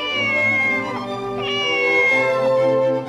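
A kitten meows loudly in a long, drawn-out, high-pitched cry that wavers and bends in pitch, filling about three seconds with no talking.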